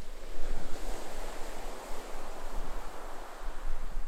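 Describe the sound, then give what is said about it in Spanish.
Steady ocean surf washes continuously against the shore, a broad rushing roar with gentle swells in intensity, heard alone at moderate volume with some low wind rumble. “un océano primordial, donde el tiempo es líquido y las olas te llevan a explorar los recuerdos profundos del Pacífico.”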